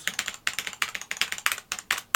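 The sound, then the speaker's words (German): Rapid, clacky typing on a mechanical Cherry G80 keyboard, a quick run of sharp keystrokes in short bursts with brief pauses, fairly loud, with no voices. “es gibt von Cherry, Cherry, Cherry G80”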